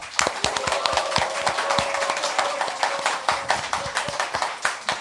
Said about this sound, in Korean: 국민TV 시사 토크 마마이스 여러분의 힘찬 박수와 함께 시작하겠습니다.